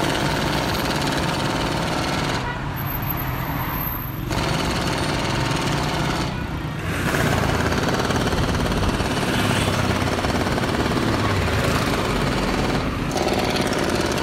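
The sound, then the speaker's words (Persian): A jackhammer pounds away at asphalt in a park in steady, dense bursts, loud, with a few brief pauses between runs and an engine rumbling underneath. No one speaks. “من کلافه شده بودم از صداهای اطراف تو گویی وسط پارک به چاه نفت می رسید بس که گلاویز بود مت با آسفالت”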